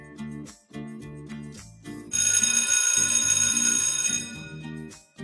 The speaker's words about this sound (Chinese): 上课的铃声响了